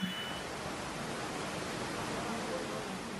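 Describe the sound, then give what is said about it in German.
A steady, dense roar of rushing muddy floodwater shooting through towns fills the whole clip, broad and unbroken like a powerful torrent, with no pauses or distinct splashes. “reißende, schlammige Fluten, Wassermassen, die durch Orte schießen”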